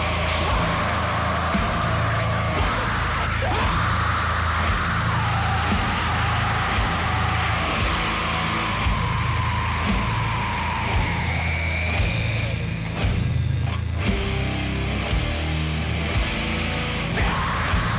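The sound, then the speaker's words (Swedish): A loud, dense song with heavily distorted, screamed vocals over a thick wall of noisy instrumentation and a steady pounding low end, playing continuously without any talking. “Alltså jag gillar, jag gillar den här idén om att ha överdistad gallskrikssång och sådär, men det blev lite too much, tycker jag.”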